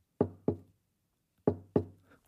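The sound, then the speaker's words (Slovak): Four hollow knocks from a corner of a living room in the evening land in two pairs, a quick double tap, a short pause, then another double tap, each sharp and resonant with nothing else around them. “Z komory sa mi strácali pomaranče a sladkosti a po večeroch sa z kúta obývačky ozývalo čudné ťukanie. Asi takéto.”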